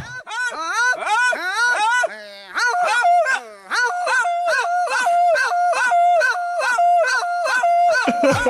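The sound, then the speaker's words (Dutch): Loud yodel-like calls between machete-carrying farm workers letting each other know where they are, voices sweeping up and down in quick whoops, then settling into a rapid, regular pattern that flips back and forth between two pitches for several seconds. “En om te voorkomen dat ze elkaar met hun machetes per in motjes hakken, hebben ze daar een soort jodelsysteem.”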